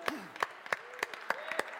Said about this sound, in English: I just want to, if I can just have all of the ladies, why don't you guys all stand up, and us men will give you a large, a loud applause. All right, so ladies, why don't you guys all stand up, and we want to let you know, come on,